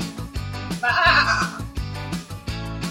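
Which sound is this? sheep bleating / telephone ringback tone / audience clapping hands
sheep bleating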